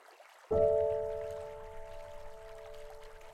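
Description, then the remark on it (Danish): Water of a stream rushes in suddenly and keeps flowing steadily, with a clear sustained tone ringing over the gurgling for the rest of the moment. No one speaks. “Og når jeg længes allermest, går jeg herned til åen.”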